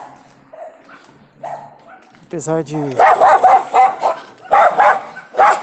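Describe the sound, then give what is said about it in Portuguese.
Several dogs bark repeatedly and loudly in bursts, with a whining yelp at first, while a person speaks quietly underneath and early on. “Deixa os dogs latir aqui.”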